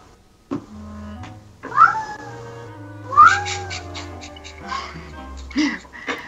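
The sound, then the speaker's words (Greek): A cat meows loudly several times, with two long rising-and-falling yowls followed by shorter, sharper cries, over a low steady hum. “Φέρνουμε τις γάτες μας. Φωνάζει, μου φώναζε.”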